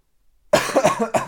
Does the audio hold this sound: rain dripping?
no